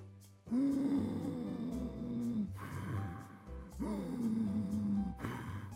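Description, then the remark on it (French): Two slow, deep abdominal (belly) breaths, each filling the belly as much as possible and then let out in a long, drawn-out exhale with a faint voiced, sigh-like groan. No one speaks. “On remplit le ventre le plus qu'on peut et on expire lentement.”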